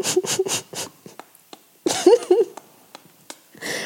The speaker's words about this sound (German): glaubst du, ich kann Keks essen?